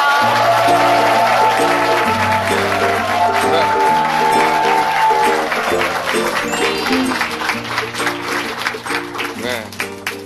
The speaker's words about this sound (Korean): 자, 오늘의 주인공은요. 연예계 잇몸 미남. 매력 만점 개그맨 … 씨 모실게요. 박수로 환영해 주세요.